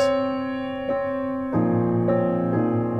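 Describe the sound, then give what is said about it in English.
Sustained chords containing a dissonant minor ninth, played alone and clearly, with new notes entering in several steps so the harmony thickens and rings on. “But if you put a minor ninth in, in the right place, then it can be so beautiful.”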